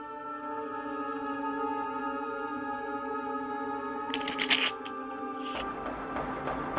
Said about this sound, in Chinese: 突然，我听到一阵洗扑克牌的声音，哗啦哗啦的很响，在东屋。这深更半夜的，彭老太太在跟谁玩牌呢？